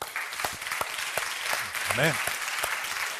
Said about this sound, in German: Ich weiß, jemand aus Hamburg ist da. Ganz super. Lass uns mal für die Leute auch noch klatschen.